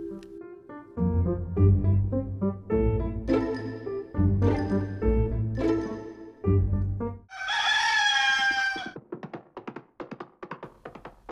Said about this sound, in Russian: Уже петухи пропели, а в лесу не было слышно ни голосов, ни шагов